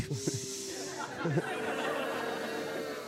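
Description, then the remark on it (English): A live audience hisses and boos together at news that Frito Lay's Doritos bags now hold fewer chips. It starts with a sharp, airy hiss that gives way to a steady mass of low, drawn-out boos and murmuring voices throughout. “Think about what it took for you guys to hiss and boo.”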